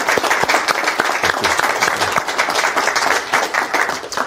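An audience bursts into steady applause, many hands clapping in a dense, crackling wash that stays loud and even for several seconds, with no speech over it.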